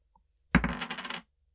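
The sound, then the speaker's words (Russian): A coin showing the Queen on one side and a kangaroo and an ostrich on the other is flicked with a faint tick, then lands with a sharp metallic clink and rattles and rings briefly as it spins and settles, about half a second in all, coming up on the Queen side. No talking. “На решке сразу двое. Кенгуру и страус. Но ну, подбрасывай.”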